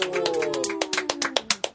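Brief, scattered applause welcoming a stand-up comedian: a dozen or so sharp, separate claps in an uneven rhythm, with a sustained voiced tone sliding downward underneath.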